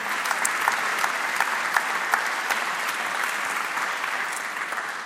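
Steady audience applause fills the whole stretch, a dense, even wash of many hands clapping with sharp individual claps popping out, no voices over it.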